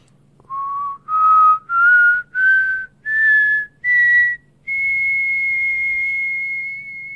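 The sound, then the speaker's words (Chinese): A person whistles to portray the north wind: six short clear notes stepping upward in pitch, then one long sustained high note, all without any talking. “可是，北风姐姐还没有练完口哨呢。啊，秋天到，吹口哨。”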